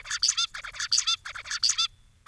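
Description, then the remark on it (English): Zebra finch chirping: quick nasal chirps come in three close, clear bursts, each a rapid cluster of calls, with no talking and brief pauses between groups. “Steve wanted to find out whether a bird, the zebra finch, saw colour in a categorized way, like Ellie saw that picture of the rainbow.”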